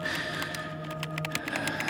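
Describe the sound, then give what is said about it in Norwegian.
Quick, irregular key taps from a computer keyboard as someone types in a code click out over a steady electronic hum, moderately loud, with no voices. “Ja, og så taster jeg koden.”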